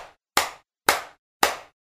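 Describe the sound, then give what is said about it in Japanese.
Three sharp, loud hand claps in steady succession about half a second apart, each a crisp smack with a quick decay, following the fading tail of an earlier clap. No one speaks. “そうして激しく手を鳴らした。”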